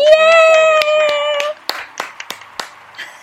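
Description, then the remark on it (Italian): A few people clap their hands in brief, uneven belated birthday applause, sharp claps scattered over a couple of seconds, while a voice holds a loud drawn-out cheer at the start. “E eh, io eh, lo facciamo ora, un applauso al yeah!”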